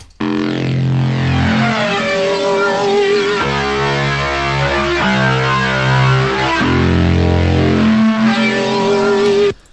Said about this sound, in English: This is my Titanism Reese bass. So, if anyone knows what a Reese bass is, if you listen to drum bass, you'll know what a Reese bass is. But it kind of sounds like this. Oh wait, that's low pass.